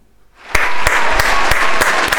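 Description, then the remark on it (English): A round of applause, with steady clapping and a few louder, sharper claps landing at roughly even intervals over a dense wash of hand claps, no one speaking. “round of applause, and that's us clapping their cheeks.”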